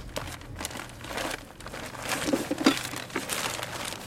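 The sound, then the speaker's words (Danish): A plastic bag of bought sand, to be mixed with water, being handled, giving a steady run of dry crinkling and rustling with a few sharper crackles midway, moderately quiet, with no voices. “Er det sandet, det der i posen?”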